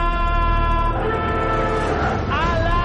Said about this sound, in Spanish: Pongo la alarma. Ponga la alarma, nenita, ponga la alarma. ¡Alarma!